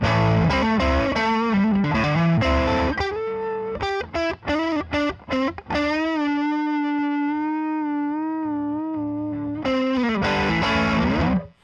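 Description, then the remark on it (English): An electric guitar played through a drive pedal: gritty distorted chords, a burst of short choppy stabs, then a long sustained note ringing out before more strummed chords at the end. No talking. “I th- I feel like it's really the drive knob is actually really usable all the way through the range, which like yeah.”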